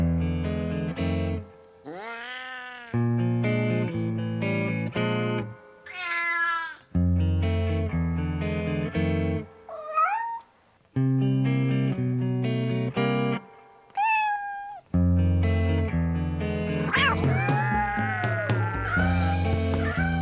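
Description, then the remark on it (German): A novelty blues tune in which cat meows and yowls serve as the singing, wavering cries rising and sliding over a steady, loud band accompaniment with brief pauses between phrases. “Jetzt singen erstmal ein paar Katzen einen richtigen Blues.”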